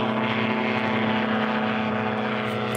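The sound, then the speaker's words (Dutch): A steady, droning engine hum of a flying car, like a small propeller aircraft, with a strong constant low tone and dense whirring harmonics holding at the same loud level throughout, with no talking. “Ja, nee, ik heb een vliegende auto.”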